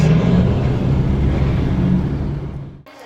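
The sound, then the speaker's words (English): A car drives along a street with a steady, loud engine rumble and road noise. The rumble continues unbroken for about three seconds, then cuts off abruptly near the end. No one speaks. “That's a pretty good stop for Guatemalan right there. I'll just follow, I'll follow suit.”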